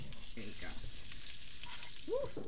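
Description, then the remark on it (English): Potatoes, just put into a hot pot of chowder with the heat turned up, sizzle steadily, a dense, bright crackling hiss that stays constant throughout, with a faint scrape or brief tonal clink near the end. “Give it a little bit more heat. Put the potatoes in. Yeah. There they go.”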